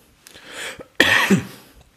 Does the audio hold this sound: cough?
yes